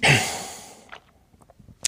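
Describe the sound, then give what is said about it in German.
A loud breathy exhale bursts out and fades over nearly a second, followed by a few faint, short puffs of breath. “Könnte jetzt noch, noch vielfältige Schnaufgeräusche machen.”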